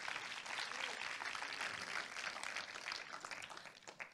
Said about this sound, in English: Can we just clap our hands and let's worship the King of Kings and the Lord of Lords?